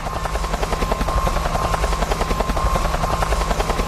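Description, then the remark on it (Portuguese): A running helicopter's rotor produces a loud, steady rhythmic thumping over a dense mechanical roar that holds constant throughout, with no voices. “O helicóptero tá ligado!”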